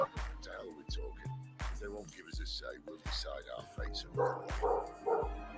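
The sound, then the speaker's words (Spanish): Dogs belonging to the speaker's cousins bark in a steady run of sharp, fairly loud barks, roughly one every half second to second, with a few higher yips mixed in. “Aquí los perros de mis primos nos saludan.”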